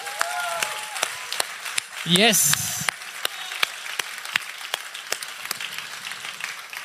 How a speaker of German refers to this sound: Und bevor wir starten heute, möchte ich mal auch unsere Freunde in Erlangen, in Ansbach und in unserer Online-Community begrüßen. Und lasst sie mal begrüßen mit einem richtig fetten, lauten Applaus.